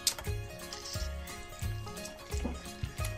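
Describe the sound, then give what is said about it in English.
An orange is pressed on a citrus juicer to make orange juice, making wet, squelchy grinding sounds in steady repeated pushes, about six in quick succession, fairly quiet. “And we put the orange on the squeezer. Then all the orange will go down and open it up. Then it's gonna make orange juice.”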